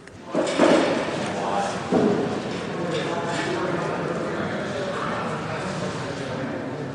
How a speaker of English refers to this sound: Uh, I'll shut up for a second. Maybe you can hear the slight din of chatter and work.